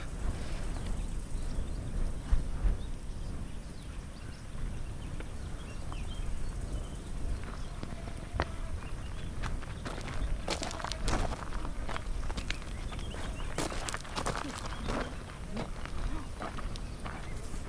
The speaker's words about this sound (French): C'est magnifique, on est sur le bord du cratère sur la crête du volcan et on foule au pied euh, cette roche rouge, cette roche volcanique.